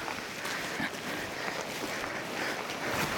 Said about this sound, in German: Es regnet natürlich. Ähm, man hört den Regen auch im Podcast und man hört manchmal auch das Rascheln der äh, Regenkleidung.